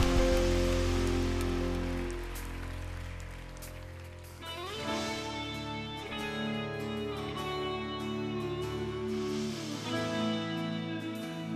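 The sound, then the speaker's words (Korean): An audience at a worship service claps steadily in a dense, sustained wash of applause offered in praise and thanks to the Lord. Sustained instrumental chords play beneath it and grow more prominent about halfway through, while the clapping continues to the end. “우리의 찬송 중에 거하신 우리 주님, 우리의 찬양 가운데 역사하신 주님께 우리가 할 수 있는 최고의 영광과 감사의 박수 올려드립시다.”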